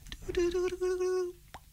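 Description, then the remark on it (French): A voice imitates the bubbly sound effect often used in science-fiction films when they show a scientific base: a sustained pitched hum broken by soft popping plops, ending with a short gurgle, fairly loud, with no words spoken. “Et là, il y a ce bruitage euh, où il y a à moitié des bruits de bulles.”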